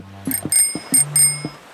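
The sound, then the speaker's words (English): A small bronze bell, one of three in a box being tried in turn, rings out several times in quick succession, its bright, high tone lingering between strikes, with soft knocking thuds underneath; fairly loud, no voices. “I can see three bronze bells in that box over there.”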